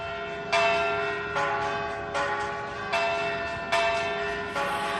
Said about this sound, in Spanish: Así sonaban este mediodía las campanas en Valladolid para anunciar que ya tiene nuevo arzobispo.